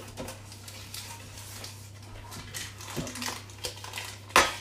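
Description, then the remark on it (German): Buttered paper rubbing and scraping inside a metal loaf tin in soft, irregular strokes as the tin is greased for a cake, ending with a sharper clink, over a steady low hum. “Und das kommt jetzt, ähm, das verteilen wir jetzt in unserer Kastenform.”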